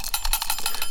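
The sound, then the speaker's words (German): A small mechanical egg timer's built-in bell rings in a rapid, steady burst of bright metallic strikes, with no voices present. “Aber ja, ich höre ja, dass eine Klingel eingebaut war, ne?”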